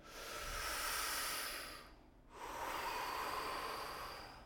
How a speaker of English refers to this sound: Um, breathing with your diaphragm. So you can take deep breaths like